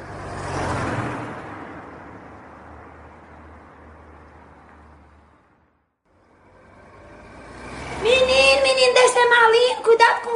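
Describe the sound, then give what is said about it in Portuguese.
A car passes on the street, its broad road noise loudest at first and then fading over several seconds. After a short lull, voices start talking. “Carro,”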